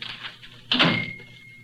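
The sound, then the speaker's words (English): A door shuts once with a solid thud, followed by a brief ringing tail as it settles. No one speaks; faint room hiss sits underneath. “Close the door.”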